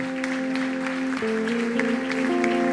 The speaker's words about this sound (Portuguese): Aleluia, tem um jovem ali. Vamos aplaudir ao Senhor. Amém, amém, amém.